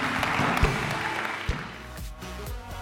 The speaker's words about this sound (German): Come on, können wir allen Leuten einen großen Applaus geben, die sich für Jesus entschieden haben. Come on.